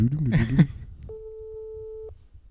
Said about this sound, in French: Allez, hop, haut-parleur, c'est parti. Première sonnerie.